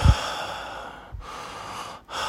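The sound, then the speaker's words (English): A voice imitates a man's breathing growing heavier: loud, breathy exhalations in a slow rhythm, with a brief pause in the airflow before another rush of breath. “Like, you know how like someone is just breathing heavily, like”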